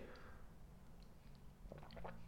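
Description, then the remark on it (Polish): A quiet sip from a cup, with soft wet mouth sounds and a brief slurp near the end against a low background hum. “Łyk kałusi.”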